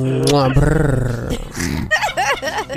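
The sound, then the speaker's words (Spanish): A person imitates a barking chihuahua: a drawn-out growly, whiny vocal gives way to a quick run of sharp, high-pitched yips, loud. “Siempre tienes que ladrar”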